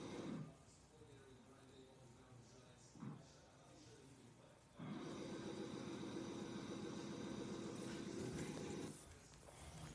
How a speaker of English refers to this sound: engines are warming on up.